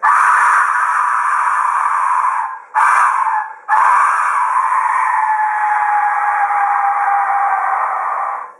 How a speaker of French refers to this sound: Les archéologues ont découvert dans un temple aztèque au Mexique des petits objets funéraires en forme de tête de mort qui, quand on souffle dedans, produisent un son ressemblant à un cri de souffrance poussé par un être humain. Je vous laisse juge.